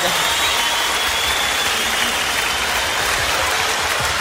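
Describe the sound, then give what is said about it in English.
Sustained audience applause, a dense, steady wash of many hands clapping at once with no break or letup, loud and full throughout. “Stand up and clap. Stand your ass up and clap.”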